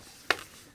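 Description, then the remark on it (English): One quick, stifled sneeze: a brief, sharp burst of breathy noise that cuts off almost at once, with quiet before and after and no talking. “Bless you.”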